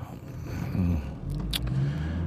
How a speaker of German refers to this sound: Jetzt muss ich hier wieder bremsen, werde ich schön ausgebremst von dieser blöden Ampel.